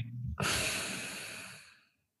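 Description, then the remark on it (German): After a brief quiet pause, following an inhale held for three seconds in a relaxation breathing exercise, one strong, breathy exhale bursts out and trails off over about a second and a half. No talking. “Das heißt, wir atmen ein, halten Luft für drei Sekunden an, zwei, eins. Und dann explodieren wir in Entspannung.”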